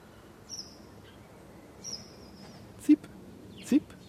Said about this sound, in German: Das ist der Bergfink anscheinend.